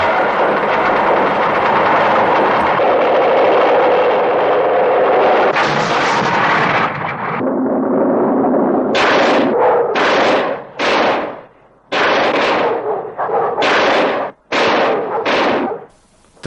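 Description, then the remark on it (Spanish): Loud, heavy gunshots fired repeatedly at excavators, about half a dozen sharp booming blasts with short gaps between them, following a stretch of continuous loud mechanical rumbling and clatter of the moving excavators. “disparar repetidas veces a las máquinas, se acerca a ellas y ve que no hay nadie.”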